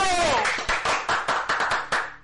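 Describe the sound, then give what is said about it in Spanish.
Applause from a group welcoming a social media expert guest, with a brief high, falling vocal sound at the start, then steady rhythmic clapping in sharp, evenly spaced bursts of about eight beats. “Aplaudimos todos, menos los que no están.”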